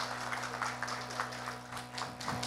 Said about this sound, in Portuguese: Aplausos aí para Edir. Ela realmente merece.